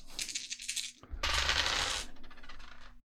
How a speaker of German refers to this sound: Genau, das heißt, so nehmen wir an, du hast nur S, kannst du diese drei Würfel würfeln. Mach mal. Würfelt man immer nur drei Würfel? Ja, es gibt nicht mehr.